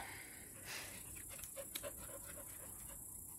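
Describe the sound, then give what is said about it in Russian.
A dog pants quickly and steadily at a fairly low level, with a few soft, high little whimpers slipping in between the breaths. “Собаки у нас перевозбужденные сегодня.”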